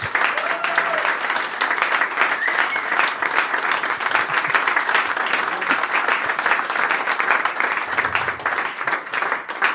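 Sustained applause from an audience as a guest is called onto the stage, a dense, steady wash of many hands clapping at an even loudness for the whole stretch, with no voices standing out.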